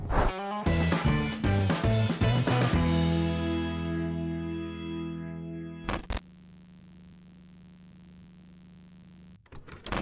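Short electronic channel intro jingle (vinheta): a quick run of punchy, distorted synth stabs, then a ringing chord that slowly fades, a sharp noisy hit, a low steady drone and a final burst. No one speaks.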